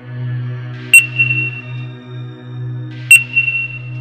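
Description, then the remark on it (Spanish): Two sharp electronic beeps about two seconds apart from a store cash register's barcode scanner in the early morning hours, each a bright tone like an item being registered, over a steady low electrical hum with no talking. “Sonaba como cuando éstas detectan el código de barras al pasar productos por el lector.”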